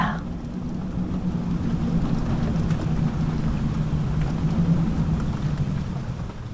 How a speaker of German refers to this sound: Du schließt deine Augen und lauschst dem näher kommenden Gewitter. Durch deine Lieder kannst du die Blitze zucken sehen.